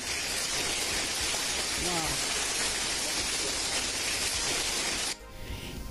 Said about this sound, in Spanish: Aplausos, producción, por favor.